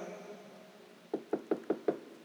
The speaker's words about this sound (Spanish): tocara la puerta